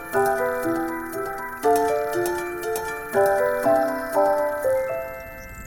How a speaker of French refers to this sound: Les enfants, vous entendez les cloches Oui, oui, oui, oui. Mais c'est où Ce sont les cloches du village d'Abja.